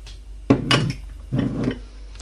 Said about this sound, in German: Und da tun wir Olivenöl rein. Einen guten Schuss. Viva España. Ich habe hier Spanisches.